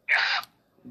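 A single sharp, loud sneeze bursts out, a short hissing blast that cuts off abruptly, followed by a faint low murmur.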